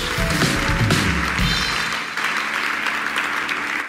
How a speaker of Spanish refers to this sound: Ahora sí, dele un aplauso a Dios el que tenga tiempo para aplaudir a Dios.